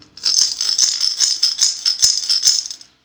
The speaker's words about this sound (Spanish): Unas cuantas monedas se escuchaban dentro de ella.